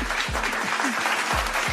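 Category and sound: crowd, applause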